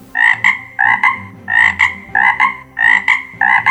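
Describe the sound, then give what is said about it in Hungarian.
A cane toad croaks loudly, a steady run of raspy, doubled calls repeating about every half second, with no voices. The toad is a giant 2.7 kg specimen found by Australian rangers in Conway National Park, Queensland. “gigantikus 2,7 kg-os óriás varangyot találtak ausztrál vadőrök a Queenslandi Conway Nemzeti Parkban.”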